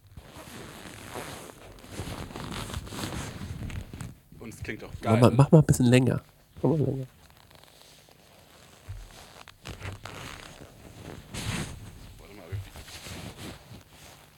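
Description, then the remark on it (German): Lederhosen creak and rub against a microphone placed at the wearer's crotch in a loud squeaky burst followed by a shorter one, with people chatting before and after. “Ich habe noch nicht so raus, wie ich die Knarzgeräusche”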